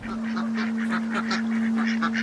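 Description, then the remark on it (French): Ducks calling on a lake, a busy chorus of overlapping nasal quacks and honks that continues throughout at moderate volume, with a steady low hum underneath and no talking. “Look at that. Ducks on the lake.”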